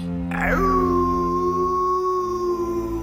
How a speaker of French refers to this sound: Pour trouver le loup, ça ne va pas être compliqué, dit la mère. Il suffit de suivre ses cris.